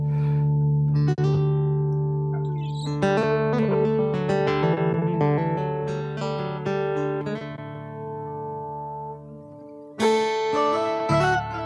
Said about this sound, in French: Donc là, il joue sur une guitare folk. Et euh, ces basses sont envoyées vers un octaveur pour créer l'aspect basse. Et je trouve que c'est très sympa.